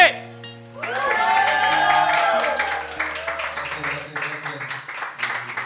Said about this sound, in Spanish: Damas y caballeros, por favor, fortísimo aplauso para